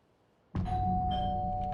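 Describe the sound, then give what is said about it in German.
After a brief quiet moment, a doorbell at the gate of a care home starts ringing abruptly, holding a loud, steady, resonant tone that continues to the end with no voices present. “oh, das sollte ich klingeln?”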